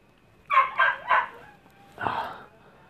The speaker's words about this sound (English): Oh, fucking dog.